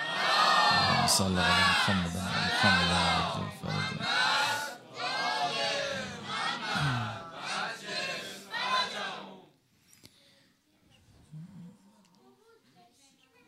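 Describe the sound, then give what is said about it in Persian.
A large crowd loudly chants salawat in unison, voices rising together in several strong rhythmic phrases for about nine seconds before dropping away to faint, scattered murmurs. “انشالله که امشب عیدی بگیرید از دست امام زمان یه سلوات بلند بفرستید”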